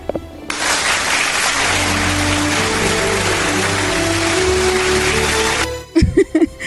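A crowd breaks into steady, loud applause that holds for about five seconds, a dense wash of clapping that cuts off abruptly before a voice starts speaking.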